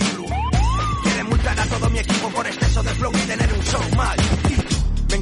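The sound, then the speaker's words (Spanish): A police siren wails in rising, sweeping tones layered over a loud, thumping hip-hop beat, with the siren most prominent near the start and no one speaking. “Llega la poli cuando yo pillo el”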